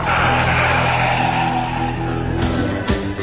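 A car engine revs loudly and steadily for a few seconds, a continuous roar with a brief surge near the end and no voices.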